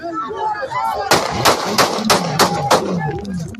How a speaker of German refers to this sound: nach seinem Auftritt an jenem Mittwochabend Anfang August auf die Straße tritt und sich den Weg zu seinem Auto bahnt, fallen Schüsse.